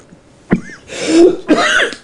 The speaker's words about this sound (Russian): Ни разу не слышал, чтобы диктор по радио кашлял.